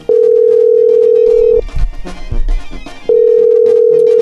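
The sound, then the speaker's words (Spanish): A phone call placed from the Radio Poder radio show rings out unanswered: two long, steady, mid-pitched ringback tones, loud and even, separated by a pause filled with faint rumbling background noise. “¿No contestan? Bueno, ustedes dicen si seguimos o le marcamos a alguien más.”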